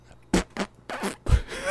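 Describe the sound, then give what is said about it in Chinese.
Someone makes mouth fart noises: a few short, breathy sputtering bursts followed by a louder, lower, buzzy raspberry near the end. “我这样 B-box 吗？ 哎呀，在放屁，有屁快放的屁。”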